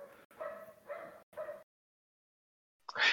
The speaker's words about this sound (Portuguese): Eu, eu, gostei desse cachorro de fundo. É uma coisa bem bucólica, assim.